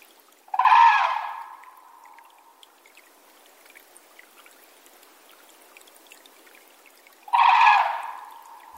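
Two loud, ringing red-crowned crane calls, bugled trumpet notes about six seconds apart, over a steady soft hiss of marsh ambience at Tokitai wetland in Hokkaido. No one speaks.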